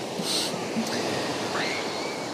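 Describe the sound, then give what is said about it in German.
Steady rushing wash of waves breaking onto a beach, a continuous broad surf roar, with a few faint high chirps of birds above it and no voices; the waves come from an incoming ferry and reach further up the beach. “Ich denke, es liegt an der Fähre, die gerade reinkommt. Jo, der Strand ist jetzt nur noch halb so groß, weil die Wellen tatsächlich weiterkommen.”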